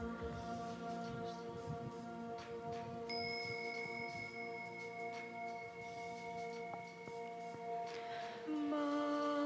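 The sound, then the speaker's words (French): A small bell is struck twice during a beer yoga session, a few seconds apart. Each strike rings out with a bright, shimmering tone that hangs and slowly fades over a soft lingering hum. “Et avec le son de la cloche, on se détend, on se repose, on laisse le corps vraiment s'enfoncer dans le sol, sur le matelas.”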